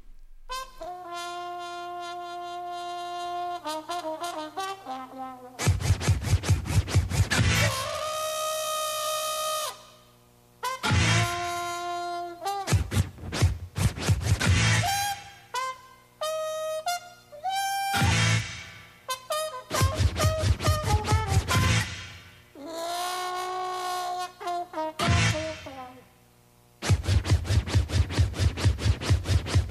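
A loud hip-hop instrumental intro, with bright sustained melodic notes broken up by punchy bursts and rhythmic record scratching. There are no vocals yet, and the beat stays prominent throughout.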